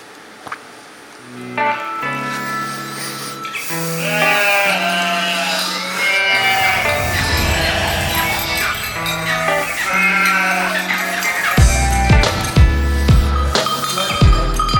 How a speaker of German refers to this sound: ich melde mich wieder hier von der Furka, einem Park in der in Schweiz, wunderschönen Schweiz. Ich habe wieder meine Lieblingsschafe hier bei mir. Wir haben hier eine wunderbare Wiese, uns geht allen gut. Kleine Schafe, große Schafe.